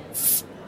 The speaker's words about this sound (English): Pop a bottle.